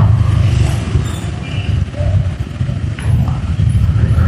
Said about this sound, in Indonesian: aduh macet nih gue diam aja nih kalau macet